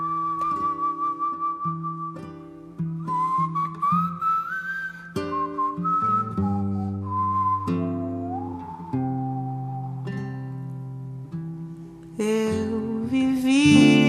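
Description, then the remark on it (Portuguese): A re-recorded version of a pop song plays steadily and loudly, a high whistle-like lead melody gliding over sustained chords and a deep bass line, with no singing and a brighter, busier burst near the end. “e aí eu pensei da gente tocar aqui agora, na verdade, como a gente já tocou meu piseiro, de tocar a versão que ela regravou”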